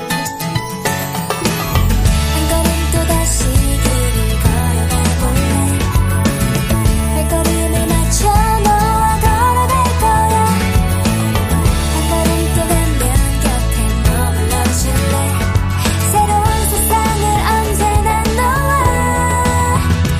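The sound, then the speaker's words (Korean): A pop song plays at full volume after a brief quiet start, with layered instruments and a steady beat carrying on throughout without any talking over it. “저희는 여기서 노래 한 곡 듣고 와서 오늘의 귀여움으로 만나보겠습니다.”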